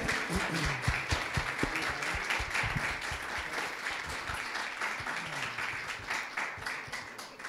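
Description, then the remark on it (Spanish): An audience breaks into steady applause for the Lord, many hands clapping in a dense, continuous patter that holds at an even level throughout without any voices standing out. “Un aplauso al Señor. An applause for the Lord.”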